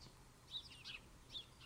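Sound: house sparrow chirping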